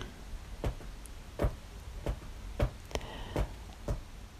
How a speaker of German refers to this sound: Und vielleicht hörst du gerade das Kratzen von unserer Katze am Sofa, weil die Kleine möchte jetzt raus.